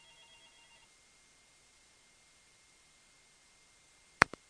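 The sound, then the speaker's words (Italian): A faint electronic phone ring sounds briefly at the start as a caller phones in to a live broadcast, followed by quiet line hiss and then two sharp clicks near the end, like the call being picked up. “riprova a telefonare di nuovo così posso eh, prendere, la, mh, prendere la chiamata e mandarla in onda.”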